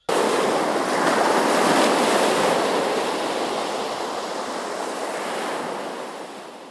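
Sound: stormy sea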